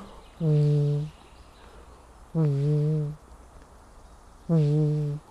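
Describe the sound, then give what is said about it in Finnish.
A person imitates a Eurasian bittern's booming call with three deep, hollow hoots, each under a second long and evenly spaced, fairly loud against a quiet background. “Mutta että mutta tällä tavalla, jos ajatellaan, niin joku kaulushaikara, niin onhan se semmoinen...”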